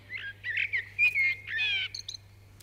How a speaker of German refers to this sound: Eine Amsel. Ja, genau.